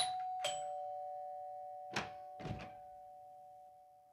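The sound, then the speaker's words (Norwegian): A doorbell rings with a clear chime whose tone lingers and slowly fades, followed by a few soft thumps and knocking sounds. No one speaks. “Jeg går på det der ringesignalet hver gang.”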